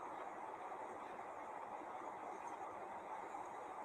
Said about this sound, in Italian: Adesso ti faccio sentire nuovamente il suono del vento del tornado. Continua a respirare simultaneamente dalla bocca e dal naso fai entrare il suono del vento anche dentro di te